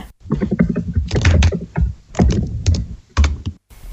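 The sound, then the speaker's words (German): Rapid, overlapping clatter of several computer keyboards as a group of players type their guesses into a game chat at once, dense irregular key clicks filling the whole stretch, fairly loud, with no voices. “Dann hört man die Tastatur von allen.”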